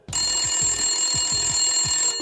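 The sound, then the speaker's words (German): The telephone of Josef Filfling, then head of the homicide squad, rings on Friday, 14 January 2005, with a steady, loud electronic bell tone, sustained high-pitched trill carrying throughout with a rapid repeating pulse underneath, no voices present. “Januar 2005, seinen Anfang genommen hat, als beim damaligen Leiter der Mordkommission Josef Filfling das Telefon läutet.”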